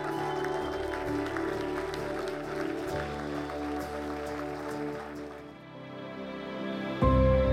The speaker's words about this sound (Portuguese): Será que podes ficar de pé e dar um aplauso a Jesus pela sua bendita palavra?